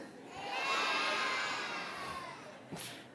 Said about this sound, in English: Can I hear an amen, kindergartners? Okay, say amen.